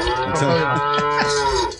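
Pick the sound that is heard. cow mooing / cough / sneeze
cow mooing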